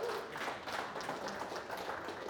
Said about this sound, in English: Can you not celebrate that? Man, like we should clap right there, right?